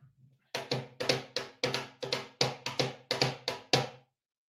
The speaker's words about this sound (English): I mean, we need drum roll. Hold on. I got a box drum here.